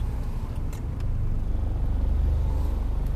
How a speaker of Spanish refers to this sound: Aquí estoy una intersección que hay que tenerle un cuidado. Después de este carro me voy.